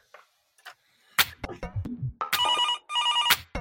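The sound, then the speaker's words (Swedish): A telephone rings twice on an outgoing call in long electronic trill bursts, clear and fairly loud, after a few brief clicks and low thumps of handling noise. “Ska vi ta en signal dit bort? Vi ringer.”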